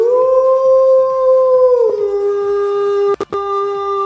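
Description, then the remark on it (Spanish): A long, sustained howl holding a steady mid pitch with strong harmonics, dipping slightly partway through, with a couple of brief breaks near the end. Loud and continuous, no talking. “No sé quién aulló, pero gracias al que aulló.”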